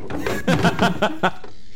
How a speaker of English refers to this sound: put them chairs down. Get over here, please. Clatter.